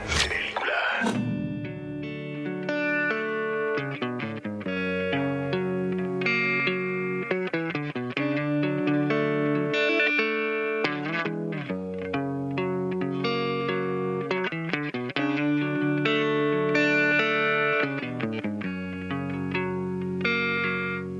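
A rock song plays steadily for the whole stretch, with layered, effect-laden guitar chords and sustained harmonic notes at an even, moderate loudness, and no talking over it.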